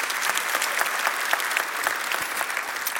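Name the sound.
audience applause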